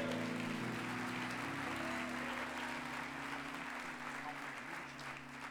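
An audience applauds once more, steadily for several seconds, a dense wash of clapping over a sustained low musical drone, fading slightly toward the end.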